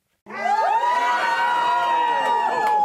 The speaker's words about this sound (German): Jubel der Tesla-Gegner nach der Stimmauszählung.